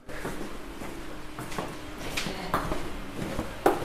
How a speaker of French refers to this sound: On entend le bruit des bottes.